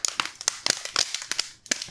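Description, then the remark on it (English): A plastic keyboard cracks apart in a quick, irregular series of sharp snaps and crackles, with small pieces clattering loose, a dozen or so bright hits over about two seconds with no talking. “Now it's a folding oh, keyboard.”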